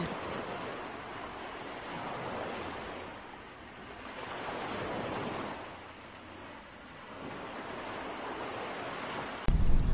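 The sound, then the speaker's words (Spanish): Ocean waves break and wash onto a beach on Guarumal Island in Sierpe de Osa in a steady, broad roar, swelling and easing in slow surges over several seconds, with no voices present. “En uno de esos paseos, ella y su madre vieron que el mar trae residuos sólidos que quedan en la playa.”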